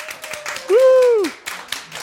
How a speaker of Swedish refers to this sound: En applåd!